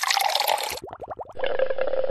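Liquid pours with a bright, splashy rush, breaks into a quick run of about seven gurgling bubble pops, then settles into a steady fizzing pour, fairly loud with no voices.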